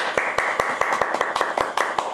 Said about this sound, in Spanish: Aplauso y beso en la cola para todos.